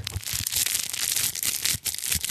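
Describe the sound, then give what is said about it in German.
Continuous crinkly rustling from a crinkly leaf-shaped grasping-ring baby toy, a bright papery crackle that keeps going for a couple of seconds, with soft bumps of handling underneath and no talking. “Dann gibt es aber auch noch das knisternde Greifringblatt.”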